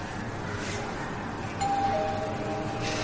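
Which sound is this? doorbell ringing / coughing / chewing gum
doorbell ringing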